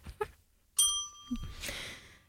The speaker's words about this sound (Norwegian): Ringer bjella.